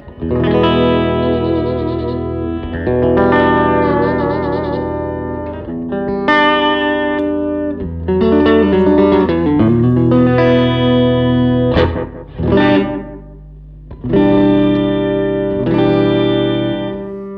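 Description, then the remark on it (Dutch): A distorted electric guitar played through an amp plays sustained chords and bends, loud, with a harsh, buzzy overtone from a guitar bridge needing cleaning ringing above the notes and brief gaps between phrases. “Moeten we even die eh, brug schoonmaken, hoor je dat? Zo'n hele een oh nare, ja, soort, uh... boventoon in, of eh, weet ik veel.”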